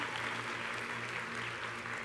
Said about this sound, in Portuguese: Pastor da nossa igreja em Blumenau, Onda Dura Blumenau. Dê uma salva de palmas.